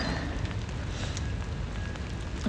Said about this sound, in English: Uh, it's not the most beautiful day in the world, I'm going to be honest. It is the mizzest day in the world. It is grey. It is uh, there is splatty rain falling everywhere.